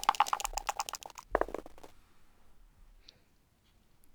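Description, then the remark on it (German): A quick burst of hard, rattling clicks as dice tumble and clatter across a surface for about two seconds, fairly loud, then settling into near silence. “Ich würfel jetzt einfach mal.”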